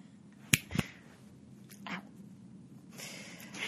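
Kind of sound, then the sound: human body sound, finger snapping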